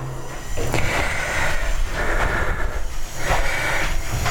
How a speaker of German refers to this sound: Jetzt muss ich mir bloß die Hände ordentlich waschen. Das gehört ja nun mal dazu.